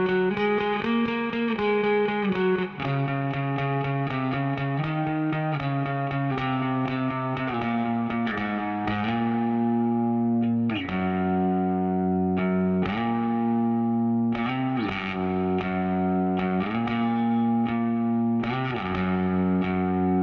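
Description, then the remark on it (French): A bass guitar played through a GarageBand guitar amp simulator set with lots of treble and reverb gives a distorted tone. It plays small solo lines: a steady, loud run of sustained notes that shift in pitch every second or two, with no voices. “j'ai trouvé qu'elle sonnait bien quand on la branchait sur un simulateur d'ampli de guitare”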